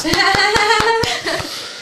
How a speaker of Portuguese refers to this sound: Aplausos, aplausos. Aplausos, aplausos.